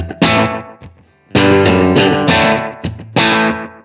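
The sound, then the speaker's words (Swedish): A distorted electric guitar plays loud, sustained chords in a few bursts, each note trailing off in repeating echoes from a delay pedal, with no reverb and no voices. “Så, och sen så bara med lite eko på.”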